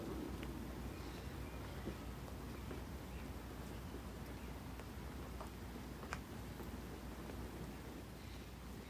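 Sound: rain falling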